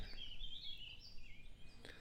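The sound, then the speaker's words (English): Faint birdsong at sunrise by still water: thin, high chirps and trills drift over a quiet outdoor background, with a couple of soft clicks and no one talking. “The birds are singing.”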